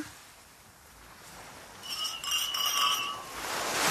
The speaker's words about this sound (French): Au moment de trinquer, je lève mon verre J'approche mon verre de celui qui fait partie de la communauté des Kunas. Je trinque.